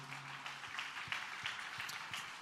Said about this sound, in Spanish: De ese aplauso de alabanza al Señor.